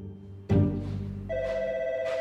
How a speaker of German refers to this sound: Wir sind im Hauptbüro von Condé Nast und bei Tina Brown im Büro. Tina Browns Telefon klingelt.